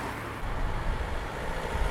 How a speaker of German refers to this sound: Denn auf dem Mittelstreifen mitten im brausenden Herforder Verkehr findet sich in riesigen Metallbuchstaben ein Teil des